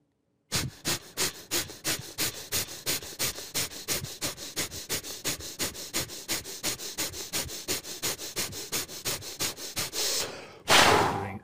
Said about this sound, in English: and you squeeze, and you kind of do like a kind of like a pressing movement that's not actually moving uh, anywhere, but you're pressing against your own palms, and you do this rapid uh, bhastrika or uh, breath of fire for let's say 20 counts, like.